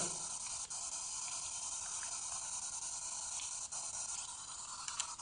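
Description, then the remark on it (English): Steady radio static hisses for the whole stretch, a dense, even wash of noise with faint crackles and flickers running through it, fairly loud, with no voices. “It was so in the static.”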